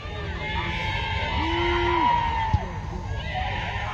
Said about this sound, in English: The Jets fans that are here are celebrating. Not many of them, but they're making a lot of noise.